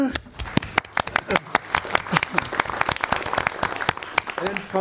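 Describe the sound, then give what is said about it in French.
An audience claps steadily for Hélène Frappa, the sharp claps overlapping into a dense, continuous patter of applause that holds at a fairly even loudness throughout. “L'ambassadrice, c'est Hélène Frappa, que je vous demande d'applaudir.”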